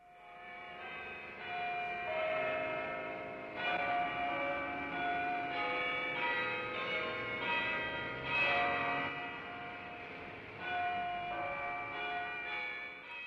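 Church bells ring continuously on a Sunday in overlapping peals, their rich metallic tones layered and sustained at a steady volume with no voices present.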